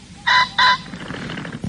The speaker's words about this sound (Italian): eh, questo era il verso della Fagianella che a, in pieno centro a Monza faceva shopping.